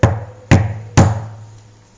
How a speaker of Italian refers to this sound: La prima casa che incontra è quella della gallina. Il lupo bussa alla porta.